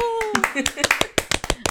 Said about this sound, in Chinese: 对，我我们要不要来先拍手一下呢？ 哦哟！